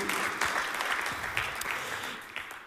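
Sustained audience applause, a dense steady wash of many hands clapping at moderate loudness for a few seconds, with no voices standing out.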